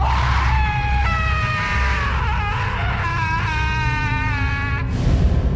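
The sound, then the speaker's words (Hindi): A woman's long, anguished scream rises and wavers for several seconds, loud, over a dense rumbling background before it cuts off abruptly, as her whole body begins to burn like a dry leaf. “एक भयानक चीख के साथ ही उस औरत का पूरा शरीर किसी सूखे पत्ते की तरह जलने लगा और कुछ ही पलों में वो औरत जलकर धुएं में गायब हो गई”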